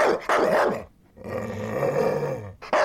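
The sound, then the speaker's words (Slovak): A loud dog lets out sharp barks, then a long low rumbling growl for over a second, and barks again at the end. No one speaks. “Pes, aby sme sa dostali aj k nemu, bude zatiaľ u kámoša, takže bude úplne v pohode.”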